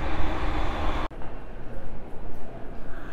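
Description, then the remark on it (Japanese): A loud, roaring rumble of a train at a railway station, where the speaker has arrived to take a train, fills the first second, then cuts off abruptly to quieter, murmuring platform ambience with no clear speech. “はい駅に着いたので電車に久しぶりに乗ります今エスカレーターに乗ってホームに行くとこなんですけど”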